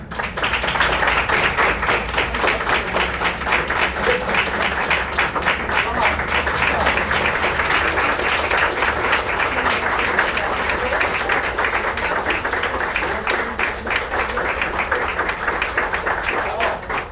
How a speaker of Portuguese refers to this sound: Gente, vou pedir uma coisa para vocês, A palestra não acabou ainda, mas eu quero que vocês aplaudam. Normalmente.